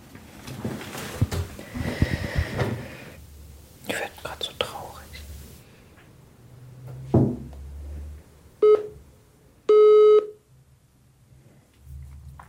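Mobile phone dialing tones as a woman presses dial to make a call: a brief electronic beep and then a longer steady tone, clear, following a stretch of soft breathy whispering and rustling.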